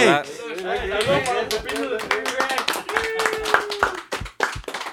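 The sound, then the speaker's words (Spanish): A few people clap in a quick, uneven burst of sharp hand claps that runs for several seconds. Excited voices and laughter rise over it, with one sustained shout partway through. “Una, esa, aplauso.”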